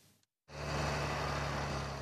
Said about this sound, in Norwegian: Ved Nesøya i Tysvær kommune frakter traktorene gigantiske lass med trær ut ifra skogen.